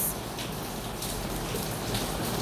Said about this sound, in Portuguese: Vá contemplando esse som ao fundo de chuva.